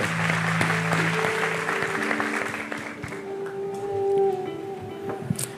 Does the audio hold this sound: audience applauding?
yes